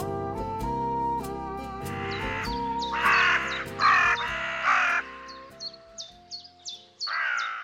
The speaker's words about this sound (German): Raben und ihre Rufe und Stimmen die gehören ja zu den Singvögeln, obwohl man das nicht glauben will, weil die Stimmen jetzt nicht besonders schön sind gerade. Aber ja, sie gehören zu den Singvögeln und sie singen auch.